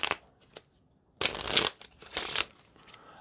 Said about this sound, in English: Well, an in the hands riffle shuffle, which sounds like this.